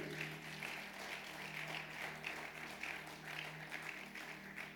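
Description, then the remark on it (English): A church audience claps together as a clap offering to the Lord in a dense, sustained burst of applause with a slight pulsing rhythm, steady and moderately loud for the whole stretch, over a faint low hum. “If I have a witness in the house, give the Lord a good clap offering.”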